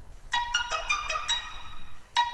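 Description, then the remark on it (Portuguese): A rapid string of bright electronic cell phone message notification chimes as a phone is switched on and New Year messages arrive, several overlapping tones piling up one after another, then a final chime after a brief pause. Clear, no talking. “Tá, tá essa sequência de barulho aí, porque eu liguei um dos meus celulares, aí veio um monte de mensagem, né, de ano novo, né?”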